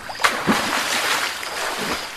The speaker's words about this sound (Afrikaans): Die seekoei duik onder die water in en kom na ruk weer tevoorskyn met 'n paar horings.